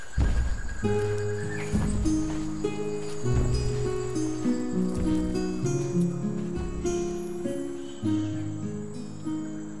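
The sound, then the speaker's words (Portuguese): A horse neighs near the start, with hooves clip-clopping faintly, while steady melodic background music plays throughout at moderate volume. No one speaks. “e faz som de cavalo assim.”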